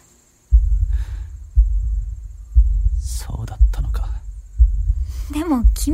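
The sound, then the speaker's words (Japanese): The heartbeats of three people thump loud and steady, about once a second, deep and muffled, with a thin high whine in the background and a few brief noises and vocal sounds over the rhythm. “今この場所で3人の鼓動が脈打ってる”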